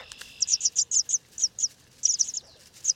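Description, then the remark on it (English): A grassland bird sings a rapid series of bright, high chirps in quick bursts, clear over a faint steady insect hum in the background. “nowhere else in North America, birds such as the bobolink seek out grasslands to raise their young, deftly hiding their nests within the dense vegetation.”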